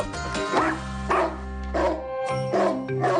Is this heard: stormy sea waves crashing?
no